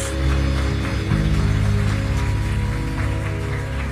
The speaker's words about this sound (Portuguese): Dê um aplauso bem forte ao Rei da Glória. Mais forte.